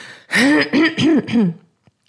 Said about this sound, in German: Ich muss mich direkt einmal räuspern.